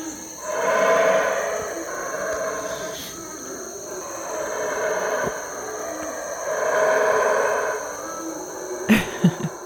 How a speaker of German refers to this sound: Es ist 6.55 Uhr. Und die Brüllaffen sind auch schon wach?